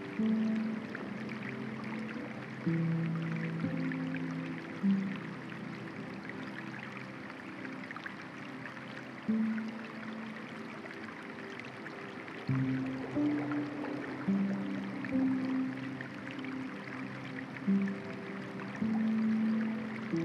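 A waterfall pours steadily, a continuous broad rush of water that holds even throughout, with soft low sustained tones humming underneath and no voices.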